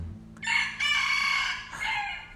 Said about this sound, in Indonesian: ini suara ayam gak berhenti-berhenti sumpah semoga di rumah kalian gak sebanyak saya ya suara ayamnya kayak gitu ya